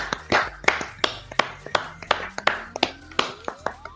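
Steady applause from what sounds like one or two people, about a dozen crisp claps in an even rhythm, moderately loud, given at half past one to thank the audience of a program, with a faint tonal hum in the background.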